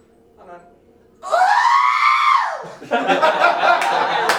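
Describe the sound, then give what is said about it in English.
A person lets out a loud imitation of a Tusken Raider cry, a single arching, warbling shriek lasting about a second, followed by laughter and excited chatter from listeners. “You can do the Tusken. Tusken's best.”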